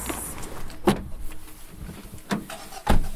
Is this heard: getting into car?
yes